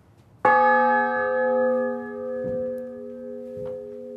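The smallest of three church bells is struck once, loud, its bright A-flat tone ringing on in a long, shimmering hum that slowly fades, with a couple of faint knocks in the background.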